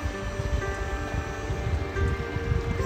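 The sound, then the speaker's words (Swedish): A steady, soft outdoor wind rumbles and rustles, gusting gently without pause and carrying slightly cooler but not cold air, with no voices. “Jag lyssnar på vattnet här bakom och känner vinden sakta.”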